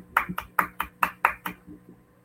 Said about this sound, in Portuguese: Palmas para você.